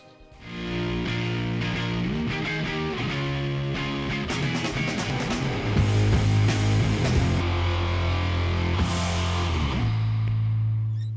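A rock band plays loud and steady, with fuzzy distorted guitars over a thick, sustained bass line and crashing drums, kicking in abruptly after a brief quiet moment.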